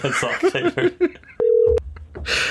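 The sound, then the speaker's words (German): A single steady telephone ringing tone sounds briefly and clearly after some chuckling and murmured voices, followed by a low hum and a soft rustle as if the line connects; a phone call to a guest. “Hoffentlich kommt er rauf beim Telefon.”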